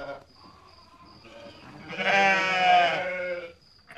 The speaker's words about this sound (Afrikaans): Die volgende oggend fyn kom die uil en die skaapwagter die bos en kort voor lank hoor hulle die skape bler.